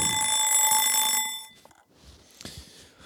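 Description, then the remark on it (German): A kitchen egg timer rings loudly with a bright, continuous metallic trill for just over a second, then cuts off, leaving only faint handling clicks and rustles. “und die Eieruhr.”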